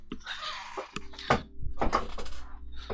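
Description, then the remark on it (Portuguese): A chair creaks and squeaks noisily as it's shifted, with several sharp scraping bursts over a low steady hum, fairly loud, no one speaking. “Mano, vamos pedir um patrocínio pra uma cadeira, cadeira gamer aí pra me dar uma cadeira que faça menos barulho. A minha. Se liga no barulho da minha.”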